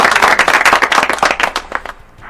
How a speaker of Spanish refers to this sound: Ah, oh, oh, oh un, aplauso.